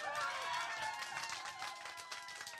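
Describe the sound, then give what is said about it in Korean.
A church audience bursts into loud, dense clapping mixed with enthusiastic cheering and shouting voices, a steady roar of applause that holds strong for the whole few seconds. “그래서 우리 교회는 박수를 쳐도 그냥 이렇게 와 이 정도의 박수 안 치거든요. 막 열광해 와.”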